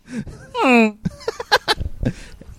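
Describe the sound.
A person makes a loud, nasal goose honk, one drawn-out call that slides downward in pitch, followed by brief bursts of voice and chatter.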